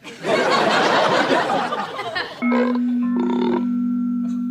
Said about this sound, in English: That's the doorbell, Al.